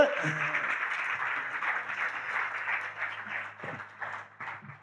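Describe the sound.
An audience applauds a guest coming up onto the stage with a dense, steady wash of clapping that holds for several seconds before thinning slightly toward the end, with faint voices mixed in.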